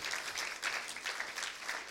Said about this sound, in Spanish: Y puede aplaudir.